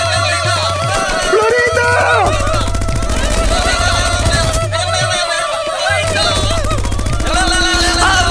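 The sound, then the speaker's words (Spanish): Loud, rapid bursts of rifle gunfire, fired into the air in celebration in Pakistan, crackle almost continuously in quick volleys, with singing voices and music running underneath throughout. “Al final no es que estén tratando de dispararle a, la pobre Florinda, sino que es que así celebran en, están celebrando pues allá en Pakistán con sus rifles para arriba”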